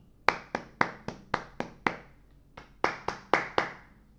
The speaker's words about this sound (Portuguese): Palmas.